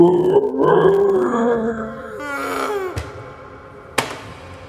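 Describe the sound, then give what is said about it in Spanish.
A voice imitates the strained, groaning inward cry that sometimes begins a seizure, wavering for a couple of seconds, then turning into a breathy, rasping gasp, followed by two sharp clicks. “Eh, después de eso es como un contraste muy, muy fuerte, porque empieza a veces como de un grito hacia adentro, ¿no?”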